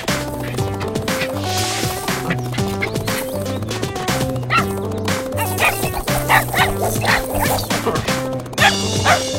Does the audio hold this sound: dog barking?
yes